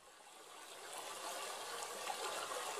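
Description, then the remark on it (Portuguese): A soft, steady trickle of water from a small, modest river with little water flows continuously, a quiet, even babble that swells slightly over a few seconds, with no voices present. “Eu parei na beira de um rio, humilde, sem graça, com pouca água, abandonado e pouco visitado, como eu.”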